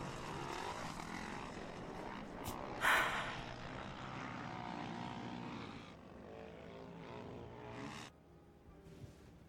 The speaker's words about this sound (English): Was that a Predator or a Reaper? US Predator drone back home.